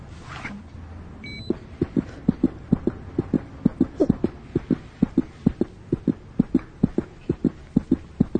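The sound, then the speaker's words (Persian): A rapid, steady heartbeat thumps in even pulses over a soft whooshing background, starting after a brief pause and continuing clearly and loudly to the end, with no one talking. “صدای قلبشو گوش کن”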